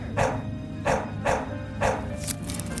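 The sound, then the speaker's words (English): A dog named Dot barks four or five times in short, sharp bursts at an uneven pace over a low rumbling background with no one talking. “You wanted a dog so badly that you made your stuffed dog real”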